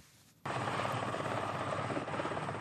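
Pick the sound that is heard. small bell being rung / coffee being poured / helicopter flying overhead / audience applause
helicopter flying overhead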